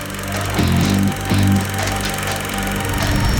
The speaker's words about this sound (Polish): Jesteśmy w samym centrum Łodzi, to dokładnie róg ulicy Radwańskiej i Wulczańskiej. Jest głośno, to będzie można właśnie teraz usłyszeć, no bo życie w pełni.